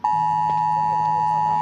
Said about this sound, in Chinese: 除了救灾技术的提升以外，政府也利用科技预警，透过手机发布地震国家警报。